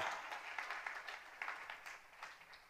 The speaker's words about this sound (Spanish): Aleluya. Démosle palmas a nuestro gran Cristo. Aleluya.